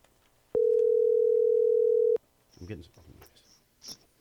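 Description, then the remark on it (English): A loud, steady telephone dial tone hums at one unchanging pitch for about a second and a half as a call is dialed for an interview, then cuts off abruptly before brief voices and rustling follow. “Why don't I give him a call? yeah, dial, please.”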